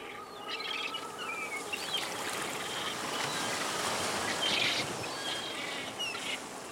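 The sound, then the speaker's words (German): Scattered albatross calls from a nesting colony at Tyroa Head rise over a steady wash of wind and sea noise. Several birds are calling, about a dozen sitting on their nests while others walk through bushy grass. No one is speaking. “Ein Dutzend Tiere sitzt auf ihren Nestern, andere tapsen durch das buschige Gras.”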